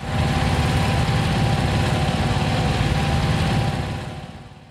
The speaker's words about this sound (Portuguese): Lembra que eu falei que o estádio estava bem barulhento? Então, nesse momento foi quando passou a máquina de cortar grama, fazendo esse agradável barulho que você vai ouvir agora.